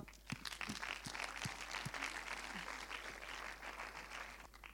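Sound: applause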